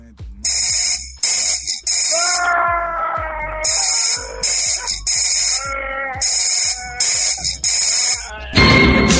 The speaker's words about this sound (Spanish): Un último apachurrón al aparatito ese, me gustó el ruido que hace Garbanzo. Ah, ¿te gustó como grita el Garbanzo?